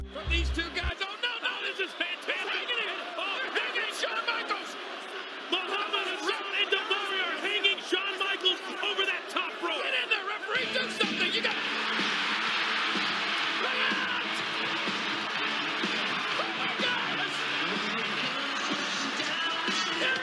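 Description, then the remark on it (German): A wrestling arena crowd goes wild as Hulk Hogan comes to help Shawn Michaels against Daivari and Hassan, a dense, steady roar of cheering and shouting that swells noticeably louder about halfway through and stays at full intensity to the end. “Und das Publikum flippt wirklich völlig aus.”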